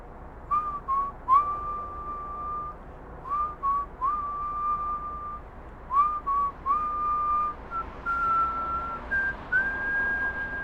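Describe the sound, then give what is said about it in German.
A woman whistles a cheerful tune after finishing a bowl of croquettes, clear steady notes in short repeated phrases that rise toward the end, with no talking and a faint background hum. “Schweigend mampft sie die Kroketten auf und fängt dann, als die Schale leer gegessen ist, zu pfeifen an.”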